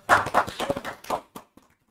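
Hands clapping in a quick, fairly steady burst of sharp smacks, about eight in a little over a second, then a few fainter, scattered claps trailing off into quiet.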